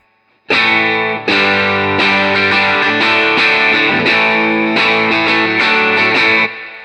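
A loud, heavily distorted electric guitar plays a sequence of sustained power chords through an amp with a Range Lord engaged, each new chord struck every second or so, thick and buzzing with no voices.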